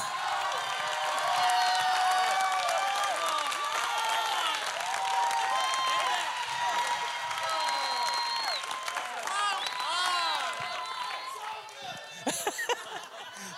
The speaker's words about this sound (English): And then, and then, so in a second, we'll just pause for 20 seconds and you can just, just clap.